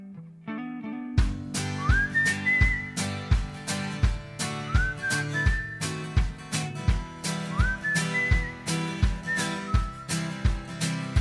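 A bright whistled melody rises and glides over a steady pop beat with punchy drums and a warm bass line, repeating its short phrase several times as a song intro. No one speaks.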